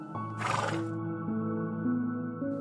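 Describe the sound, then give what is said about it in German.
A black stallion whinnies loudly, a breathy burst followed by a long, shaky, tonal neigh that wavers in pitch over a couple of seconds, with no voices. It stands in a niche at the back of a circular space enclosed by high rocks. “Es ist ein schwarzer Hengst, der dort steht.”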